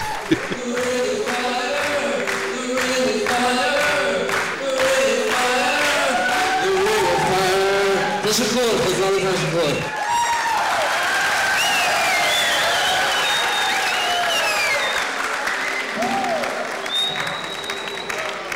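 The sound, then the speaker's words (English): A large concert crowd cheers and applauds loudly and continuously, dense clapping mixed with shouts, whoops and high whistles that swell and carry on for the whole stretch. “But they are going crazy.”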